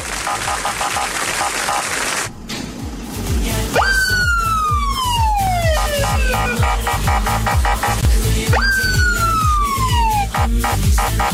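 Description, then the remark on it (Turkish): A loud police siren wails twice, each cycle jumping up sharply then sliding slowly down, over a dense, rapid rattling pulse in the background. “Bir siren çalsan.”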